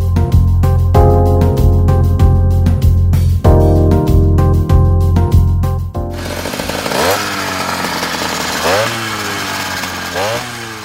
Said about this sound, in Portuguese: E em São Paulo, o trânsito parece estar com os sinais trocados. Bikes motorizadas roubam das motos, agora cada vez mais elétricas, o posto de campeãs do barulho.